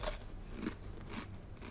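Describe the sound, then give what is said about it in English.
A kid secretly crunching a snack: about four crisp, bright bites at an even, roughly half-second rhythm, fairly quiet over a low steady hum, with no talking. “Or maybe the kid behind enjoying his snack secretly.”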